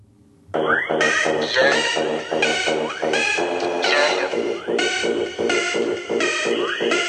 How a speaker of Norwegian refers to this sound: Du kan få en liten smakebit, bare sånn at du hører hvordan han rapper.